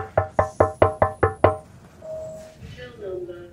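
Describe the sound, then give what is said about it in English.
Seven quick, evenly spaced knocks on a window, sharp with a slight glassy ring, followed by quieter muffled sounds that may be voices in the background. “I kept knocking on the window in the hope that they'd let me in.”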